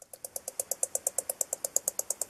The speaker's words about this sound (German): Wenn er kurz vorm Angreifen ist, dann klappert er erstmal äh, ganz bedrohlich mit den Zähnen. Das klingt so.